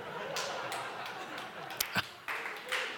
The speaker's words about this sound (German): Ja, das war jetzt Beifallsklatschen, so verstehe ich das, oder wie? Oder was eine Klatsche für die Veranstalter. Also ich interpretiere es mal als Beifallklatsche.